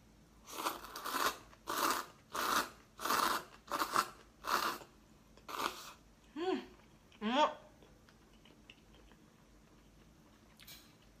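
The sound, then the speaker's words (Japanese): Crisp, rhythmic crunching as someone chews green onion, about seven steady bites, followed by two short voiced hums and then near silence with one faint tick at the end. “ネギうまいネギうまい”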